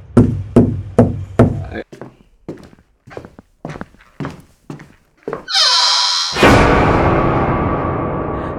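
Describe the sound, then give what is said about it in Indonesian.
Hollow knocking on a wooden wardrobe, demonstrating banging from inside it: a quick run of about five raps, then a dozen more irregular, softer knocks, followed by a brief high squeal and a steady wash of noise. “jadi lemari nih, uh -uh. kan lemari dari kayu. Iya. Ada yang ngegedor tapi dari dalam.”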